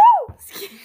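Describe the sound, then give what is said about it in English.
A woman sneezes once: a short rising-and-falling vocal "ah" that breaks into a brief, breathy burst of noise. “Her whole leg, her whole leg went in the air when she sneezed.”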